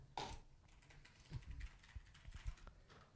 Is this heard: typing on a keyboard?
yes